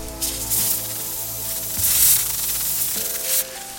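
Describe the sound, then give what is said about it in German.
A snake's hissing as it smells with its tongue: airy, sharp bursts of hiss that swell and fade several times, the loudest in the middle, over a steady low humming tone underneath. No one speaks. “Ja, unser Tier riecht mit der Zunge und dabei zischt es manchmal.”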